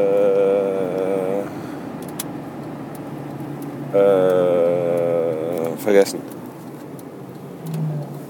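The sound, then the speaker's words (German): A car engine with a broken exhaust drones as a rough, steady low rumble throughout, with a louder tonal surge partway through. A man speaks briefly, and a short clatter sounds near the end. It has just rained and the sun is coming out. “Der Auspuff ist immer noch kaputt, deswegen ist die Geräuschkulisse hier im Hintergrund immer noch ein bisschen, naja, aktiver.”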